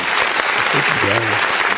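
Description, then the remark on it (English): A brief burst of crowd applause on the morning show Morning Cup with Mario, dense steady clapping filling the whole stretch, with a voice calling out faintly underneath partway through. “Yeah, I gotta make I gotta make the shorter applause.”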